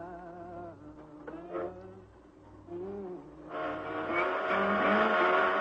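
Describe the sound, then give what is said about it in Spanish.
A vehicle engine whines past with a clear Doppler pitch shift, its tone bending downward as it goes by, then a louder, rougher engine roar swells up. No one speaks. “Cuando ese objeto en movimiento pasa frente a nosotros, sentimos un cambio de tono. A eso se le llama el efecto Doppler.”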